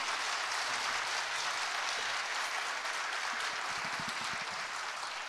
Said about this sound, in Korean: 어, 우리 기특하고 고마운 랩런트들에게 다시 한번 격려의 박수 부탁합니다.